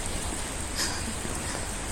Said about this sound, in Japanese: おはようございますすごい雨降ってます